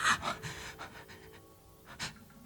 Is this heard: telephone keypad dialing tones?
no